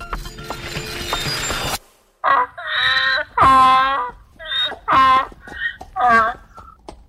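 A donkey brays loudly, a series of rasping hee-haw cycles rising and falling, after a brief burst of rough, noisy rumble at the start.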